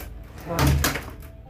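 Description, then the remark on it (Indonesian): A door is forcefully slammed shut at a boarding house on a drizzly night, a single heavy, loud thud with a brief rattling tail. “Tak lama suara pintu dipaksa tutup dengan keras.”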